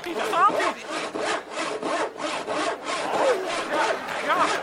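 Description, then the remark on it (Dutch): A hand saw rasps steadily through wood in quick back-and-forth strokes, about two per second, loud, with no pauses over the few seconds, as a magician performs the trick of sawing a girl in half. “kijk hem zagen.”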